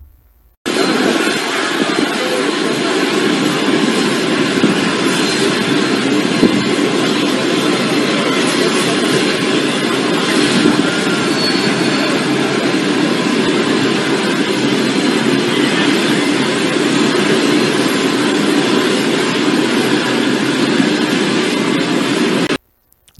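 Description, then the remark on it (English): A loud, steady roar of airplane engines idling on the tarmac, unbroken for over twenty seconds, with a broad hiss and no voices; Justin Trudeau and his family are leaving the plane on a vacation in Costa Rica. “They're departing a plane when they went on a vacation in Costa Rica without without any of their masks.”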